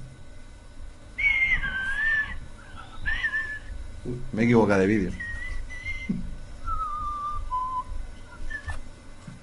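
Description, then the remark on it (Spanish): A thin, high whistling tone from a technical audio fault comes and goes in wavering bursts, shifting pitch, while a voice speaks briefly underneath in a noisy feed. “Algo ha hecho malo que va silbando.”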